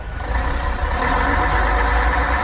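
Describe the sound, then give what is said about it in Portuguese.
A crowded city bus on the Canidezinho route rumbles loudly and steadily, a deep continuous drone with a broad mechanical hiss layered over it, and no one speaking. “Eita, menino, esse ônibus do Canidezinho tá lotado hoje.”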